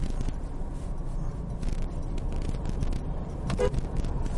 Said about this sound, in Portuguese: Deu um buzinada aí pra ficar esperto, né?